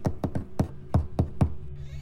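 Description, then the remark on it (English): Lacquered fingertips tap a soft knock on the bottom half of the door to a grandfather's room, about seven light raps in a loose, uneven rhythm, with a faint low hum in the background and no voices. “Hi, Granddad, she cooed gently as we stopped at her grandfather's room, her lacquered fingertips tapping out a soft knock on the bottom half of his door.”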